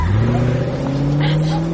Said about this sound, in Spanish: Aquella pareja no quiso investigar más. Encendieron el auto y retomaron el camino.